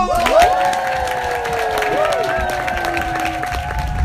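A crowd at a Fringe festival cheers and applauds the cast of an improv musical, with dense clapping and high whoops and shouts rising above the noise throughout, staying loud from start to finish.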